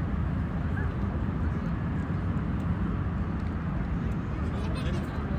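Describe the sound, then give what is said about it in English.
A loud, steady low roar of an airplane flying overhead fills the whole recording, a dense rumbling drone that holds constant without rising or fading. “See, that's why I hate planes. Slow how fast that shit's going, bro.”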